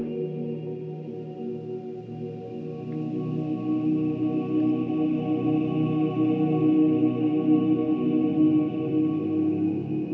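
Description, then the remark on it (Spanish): Long, droning underwater whale song with layered low moans and a faint gliding higher tone, steady and resonant for the whole stretch with no talking. “La ballena así lo entona y el agua crea esa gruta, pura ruca submarina.”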